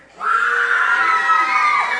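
A crowd boos loudly and steadily, a dense wash of many voices that swells in abruptly and holds for a couple of seconds without letting up.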